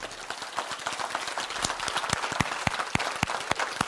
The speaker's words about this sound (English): Clap your hands.